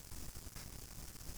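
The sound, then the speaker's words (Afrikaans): A steady, droning engine noise from a generator powering a coffee machine runs continuously in the background, a low rumble mixed with a constant hiss, fairly faint and unchanging throughout. “As jy daai generator hoor daar aan die agterkant, weet net dit is die geluid van koffie.”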